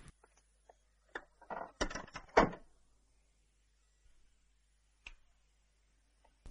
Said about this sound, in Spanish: Arabel cierra la puerta y apaga la luz.